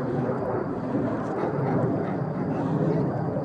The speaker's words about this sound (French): Il devait y avoir une base aérienne pas loin et les avions ne cessent de passer.